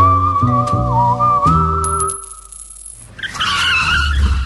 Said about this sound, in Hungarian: visszakapcsolunk kettesbe, és adunk egy kövér gázfröccsöt.